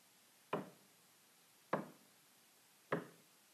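Three slow, evenly spaced knocks, each a sharp thud with a short decay, about a second apart, on a quiet background with no voices.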